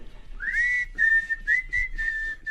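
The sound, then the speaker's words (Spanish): A whistled melody from the Kill Bill film soundtrack, a clear, sustained tone that rises at the start and then holds with several pulsed repeated notes, moderately loud with no talking. “¿Me puedes poner la canción de Quentin Tarantino, la de Kill Bill, la de... la, del chiflido?”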